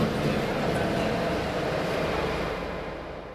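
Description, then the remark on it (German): A subway train rumbles steadily with a dense, broad roar, then slowly fades away toward the end as it moves off. “Da ist doch tatsächlich die U-Bahn schon wieder in einem Dimensionsloch verschwunden.”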